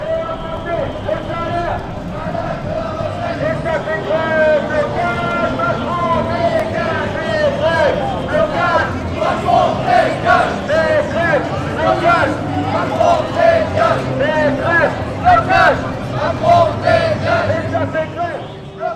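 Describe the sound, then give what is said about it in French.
High school and university students chant together in a street protest march in Le Mans, loud and continuous, with rhythmic shouted slogans rising and falling over a busy outdoor murmur for the whole stretch. “Au Mans, à Bellevue, eh bien, il y a eu un blocage et ensuite des lycéens et des étudiants se sont retrouvés euh, dans le cortège, dans le cortège Monceau, où on pouvait donc entendre des, trucs comme ça, quoi.”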